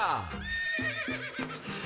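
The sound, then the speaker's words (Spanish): A loud horse whinny sweeps downward in pitch, then breaks into a quavering, shaky neigh that rings on over a steady low rhythmic backing. “Con las orejitas del caballo”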